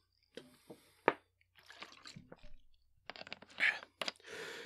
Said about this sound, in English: I'm gonna take a sip of water.